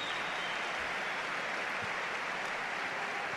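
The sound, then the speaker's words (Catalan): A steady, dense wash of basketball arena crowd applause and cheering, an ovation for Willy Hernangómez during a Euroleague game between Barça and Efes, fills the whole stretch, holding an even level without clear breaks or individual voices standing out. “Mira, mira quina ovació per Billy.”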